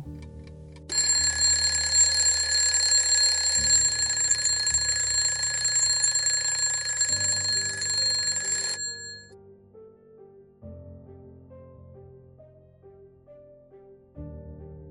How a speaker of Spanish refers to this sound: Lo siguiente que recuerdo es que la alarma sonó.